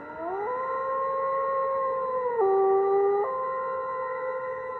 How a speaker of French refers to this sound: Le chant de la chasse. Le chant du loup et la couleur du loup, la couleur du loup gris.